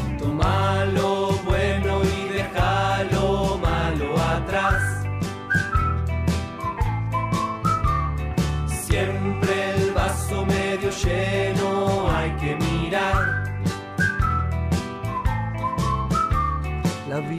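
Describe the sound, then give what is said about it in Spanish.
A person whistles a cheerful, bouncy melody over a steady band accompaniment with bass and rhythmic chords, the whistled notes clear and prominent throughout. “Junta los labios y empieza a silbar.”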